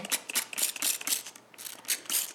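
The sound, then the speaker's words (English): A spray bottle squirts cleaner in quick, repeated bursts to clean up spilled coffee, each pump a short hiss with a faint trigger click, steady, with a brief pause before the last few sprays. “I brought Pine Sol. Oh, we don't need that. It's just coffee. I, I know, but you know, she's a pro. She likes to spray.”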